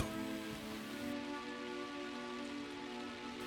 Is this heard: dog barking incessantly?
no